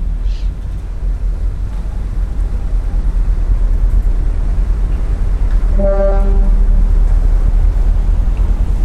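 At a pier, a single ferry horn sounds one steady blast of about a second and a half partway through, over a constant low rumble of engine, wind and water noise. No one speaks.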